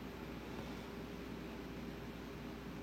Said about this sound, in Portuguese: Aqui o fluxo da correnteza está sendo acompanhado pelo som da chuva pelo crepitar da lareira. Tudo isso vai fazendo parte da correnteza dos sons do mundo,